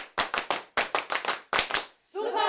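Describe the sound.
A rhythmic 'Super' welcome cheer for a guest teacher: sharp hand claps in a patterned rhythm, three quick bursts of several claps each, followed by a loud sustained voiced shout of a cheer at the end.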